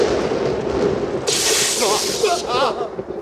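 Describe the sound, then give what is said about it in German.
A harsh, hissing crackle of a lightning strike bursts out for about a second, loud, over a steady rumbling background while a voice murmurs underneath. “Was für ein Blitz.”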